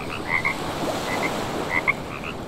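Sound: frog croaking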